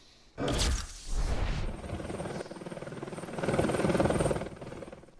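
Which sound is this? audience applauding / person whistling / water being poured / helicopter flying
helicopter flying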